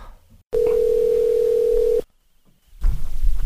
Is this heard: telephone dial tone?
yes